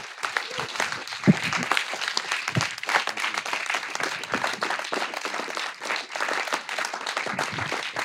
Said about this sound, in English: I told you, I'm not used to people clapping for me.